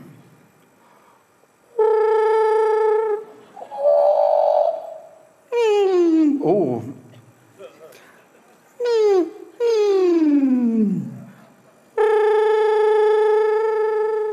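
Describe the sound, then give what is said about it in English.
A man produces a series of sustained, buzzy throat-made tones by rhythmically contracting his throat muscles to change the shape and length of the vibrating air column, some held steady and others sliding sharply downward in pitch, separated by brief pauses, loud. “So, what he's doing is he's changing the shape and the length of the vibrating air column using rhythmic contractions of all the muscles to generate all those sounds that you're hearing.”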